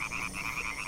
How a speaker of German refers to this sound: Die Schallblase. Das ist so eine Art Luftballon seitlich am Maul. Die können Sie so aufpusten, dass Ihr Gequake gleich noch lauter dröhnt.